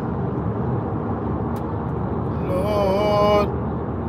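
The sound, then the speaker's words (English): Steady low road rumble from inside a moving car in heavy traffic in the Tri-State area, with a large dumpster in the way, and a brief loud horn-like blare from another vehicle cutting in near the end. “Lord, Lord, fucking traffic.”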